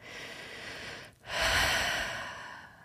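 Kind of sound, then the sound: vocal imitation, imitated heavy breathing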